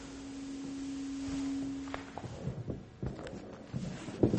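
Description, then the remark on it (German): A steady, droning feedback whine from a microphone at a church service in Barmstedt, Germany, hums for about two seconds and then cuts out, followed by scuffing, shuffling footsteps and handling noise as the speaker steps back from the microphone. “Ich gehe mal ein Stück zurück wegen der Rückkopplung.”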